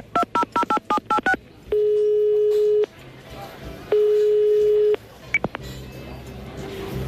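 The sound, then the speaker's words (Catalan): A landline phone being dialed, with about eight quick touch-tone beeps, followed by two long, steady ringing tones separated by a pause, then a click as the line connects. “el telèfon que el truqui? Sí, home. És que amb el fix anirà millor, saps?”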